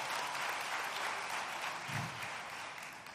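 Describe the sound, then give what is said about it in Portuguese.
Sustained applause from a crowd at the Igreja do Recreio church, given to the Lord for the people who serve God there: a dense steady wash of many hands clapping at once, holding fairly even in loudness for the whole stretch and easing slightly toward the end. “Você pode dar um aplauso, ao Senhor, pelas pessoas que servem a Deus nesse lugar?”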